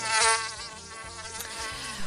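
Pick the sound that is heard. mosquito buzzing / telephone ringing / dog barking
mosquito buzzing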